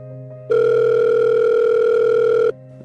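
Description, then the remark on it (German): A single two-second ringback tone, the steady electronic purr a caller hears on the line while the phone rings at the other end, standing alone over a faint background hum. “Das Telefon klingelte nochmal.”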